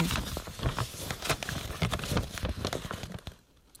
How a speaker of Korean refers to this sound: 종이가 구겨지는 소리만 계속 나오고요.